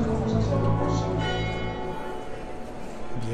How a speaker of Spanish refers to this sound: ahí están las campanas. Logré, lo logré. Quería hacer eh, la emisión a las 12 en punto del mediodía, aunque hace un frío tremendo que parece que fuesen las 6 de la mañana.